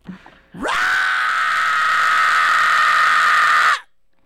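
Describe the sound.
A man lets out a single loud, sustained scream lasting about three seconds, harsh and raspy with a great deal of vocal distortion yet parts with pitch, screamed on request as a demonstration, not straight into the mic, after a brief low noise at the start, then cutting off abruptly.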